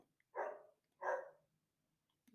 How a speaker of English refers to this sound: Yep, my neighbor's dog, he gets up.